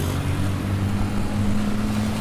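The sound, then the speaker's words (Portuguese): A car engine rumbles loudly with a low, steady drone, the motor pulling away under a wash of road noise, no voices present. “A moça abriu o vidro do carro, o marido pegou e zum!”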